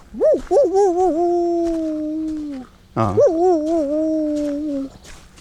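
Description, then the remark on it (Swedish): A person imitates a dog howling: two long howls, each opening with a wavering rise and then holding a steady, drawn-out tone before trailing off. “Äh, en hund går ju mera...”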